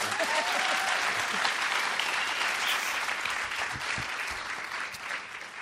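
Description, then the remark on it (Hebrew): An audience at a recording with guests claps steadily for several seconds, a dense, bright wash of many hands that stays loud throughout and eases off only slightly toward the end. “וכדי שאנשים יאמינו לנו, אז תנו לנו מחיאות כפיים כדי שיאמינו שזה...”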